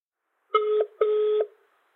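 Two short electronic keypad beeps of a telephone being dialed to call acquaintances, each a steady tone lasting under half a second, separated by a brief gap. Clear, with no voices.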